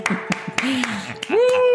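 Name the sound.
hand clapping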